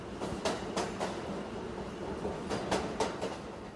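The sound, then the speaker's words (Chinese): An electric train carrying riders home from Ginza rolls along its rails with a steady rumble, broken by paired clicks of wheels crossing track joints in a clickety-clack rhythm. The ride is moderately loud, and no one speaks. “当时买完谱之后，我很开心的哼哼唱唱，跟着他一起上了电车回家。”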